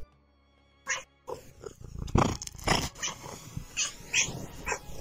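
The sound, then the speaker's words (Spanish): A domestic cat vocalizes in a string of short meows and grumbly calls, some rising, some rough and throaty, with brief pauses between them and no speech. “Yo sé, hija, que te sientes protagonista todo el tiempo, en la mañana, en la tarde, en la noche, pero hay que darle reconocimiento también a otros gaticos, ¿te parece?”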